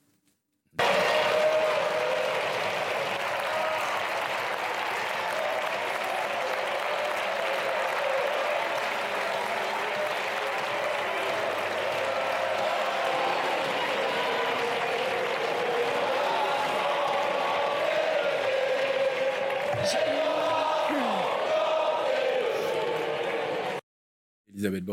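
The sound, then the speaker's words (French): A packed French parliament chamber in uproar as the government invokes Article 49.3 on the pension reform: a dense, continuous roar of many voices shouting mixed with clapping or desk-banging, loud and sustained for over twenty seconds before cutting off abruptly. “Elle prend la parole dans un hémicycle surchauffé et après quelques instants, vous allez l'entendre et le voir de flottement.”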